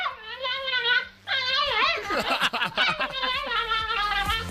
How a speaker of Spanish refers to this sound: esto sería el ladrido del perro de Víctor cuando le ve llegar